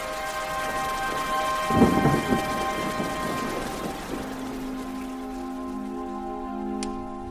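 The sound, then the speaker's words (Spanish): Heavy rain hisses steadily throughout a storm at the mansion where Lord Byron, Percy Shelley, John William Polidori and Mary stay in all day, broken by a deep, rolling rumble of thunder early on, with sustained musical tones humming underneath and no voices. “El mal tiempo ha hecho que se queden todo el día en la mansión”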